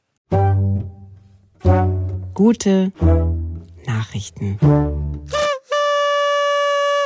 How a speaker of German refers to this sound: Und, und, und, und danke an die, an die Good Guys, weil ich finde den Jingle super, weil so eine Tröte kommt noch. Spielen wir, ihn, wir spielen ihn jetzt ab.